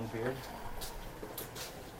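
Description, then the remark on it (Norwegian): Pasta water for carbonara boiling in a pot in a kitchen, a steady bubbling hiss broken by a few brighter splashy bursts, with a short murmur of voice at the start. “Der koker pastavannet.”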